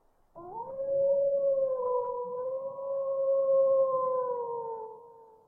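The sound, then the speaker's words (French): A single wolf howl holds one long, steady, mournful note for about five seconds, fairly loud, with no other voices or sounds around it; the wolf is not far off, half an hour away at most. “Bon, ce loup-là, j'avais moins de sympathie parce qu'il était venu tourner autour de mes bêtes, mais quand je l'ai entendu, il m'a pris de court, ça m'a fait tout drôle dans le cœur.”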